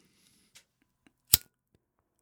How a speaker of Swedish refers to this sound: Ja, en tändare.